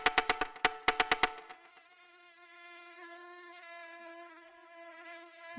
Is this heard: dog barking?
no